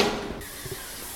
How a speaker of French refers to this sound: un prêtre en train de laver ses chaises de paroisse au karcher.